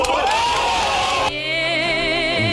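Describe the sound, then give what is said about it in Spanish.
A group, including French listeners, erupts in loud cheering after a team talk, a dense wash of shouts and possible clapping for about a second, then several voices hold long, wavering whoops that carry on steadily. “los franceses, pero lo aplaudieron.”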